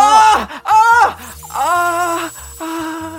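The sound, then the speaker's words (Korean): A voice imitates a patient's pained moaning during dental scaling, a run of four drawn-out, wavering groans, each rising and falling in pitch with short gaps between them. “교정이 끝나는 2년이란 시간 동안 스케일링 진짜 많이 해드렸는데 익숙해지지도 않으시는지 할 때마다 아, 아, 아, 아, 아, 아, 아, 이제는 안 아, 아.”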